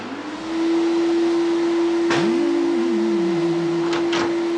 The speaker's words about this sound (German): Hey Dad, musst du unbedingt jetzt Staubsaugen? Ich will noch schlafen. Warum? Es ist ja schon 7 Uhr.